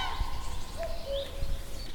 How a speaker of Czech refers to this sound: Oni vlastně, no tak já si myslím, že tam mají hnízdo, protože oni jsou teď naštvaní, ale dívejte. Oni normálně brání podle mě hnízdo. To je tak magický zpěv tohle, jo.